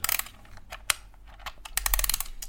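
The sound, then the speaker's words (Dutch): An old grandfather clock being wound: a series of irregular, sharp mechanical ratcheting clicks, some in quick clusters, with one louder snap partway through and a busier stretch of clicking near the end. “Jongens, meisjes, eh, ik heb hier een oude gardeklok. En die zet ik op drie kwartier. Even opwinden.”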